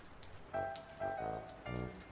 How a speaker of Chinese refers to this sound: 清晨还是阳光灿烂的，这会儿一朵云飘到头顶，天一下子变黑了。紧接着，硬币大的雨点儿就噼噼啪啪地落下来。